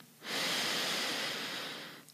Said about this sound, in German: Zum Beispiel könntest du eine Minute lang atmen. Du, dein Körper, deine Lunge, deine Organe werden versorgt mit genügend Luft. Das machen wir jetzt mal. Wir atmen durch die Nase ein